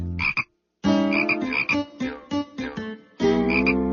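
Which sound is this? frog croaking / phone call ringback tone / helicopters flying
frog croaking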